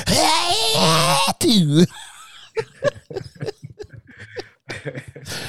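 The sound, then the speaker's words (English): A loud, drawn-out vocal imitation of a sneeze: a long wavering 'ah-ah' build-up that breaks into a sharp burst, followed by a person talking. “Nah, nigga, I be I be extra out with my sneezes, and nigga.”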